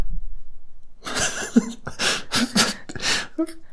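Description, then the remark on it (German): A person imitates a dog's panting laugh with a series of voiceless, breathy huffs, about six forceful exhales in a steady rhythm, fairly loud, made without using the vocal cords. “dann ist das Muster zum richtigen Hechellachen wie folgt.”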